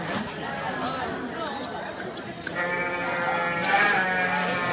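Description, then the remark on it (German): A Romney ewe, being trimmed to prepare it for a competition, bleats in a long, quavering cry that swells in the second half, fairly loud, over a steady background murmur of voices and crowd noise. “Also ein weibliches Schaf, ein Romney.”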